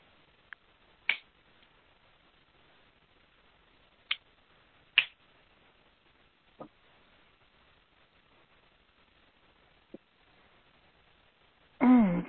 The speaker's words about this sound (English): When you feel comfortable, you can open your eyes and snap your fingers.